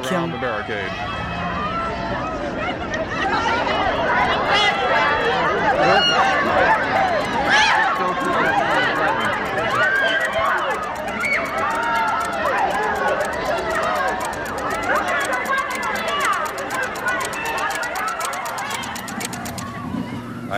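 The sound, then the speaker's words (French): A dense crowd in Fort Worth, Texas, chatters continuously as President Kennedy walks around the security barriers and shakes hands with the public, many overlapping voices calling out and talking at once, holding a steady, fairly loud level for the full twenty seconds with no single voice standing out. “Le président se dirige maintenant vers la foule en contournant les barrières de sécurité.”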